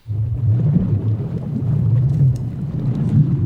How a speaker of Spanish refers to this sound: Efectivamente. Tengo sonido de mar.